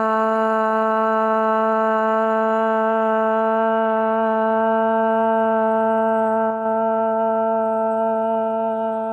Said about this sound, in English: Here we chant ah.